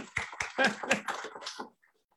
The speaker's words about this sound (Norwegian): Ja, tusen takk. Vi får klappe